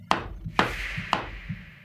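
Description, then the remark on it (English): Three sharp, woody knocks on a door, evenly spaced about half a second apart, each a hard thud with a short ringing decay, with no voices. “Then, even more unsettling, they hear a knock at the door.”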